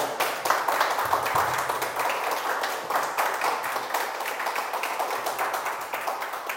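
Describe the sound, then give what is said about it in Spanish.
An audience breaks into sustained applause, dense overlapping claps forming a steady crackling wash at fairly even loudness for several seconds, with no voices standing out. “Si no le das un aplauso, yo solito se lo voy a dar.”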